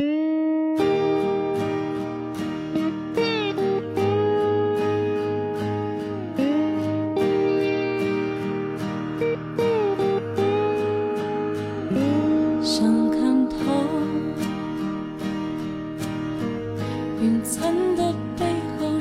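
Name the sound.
pop song playing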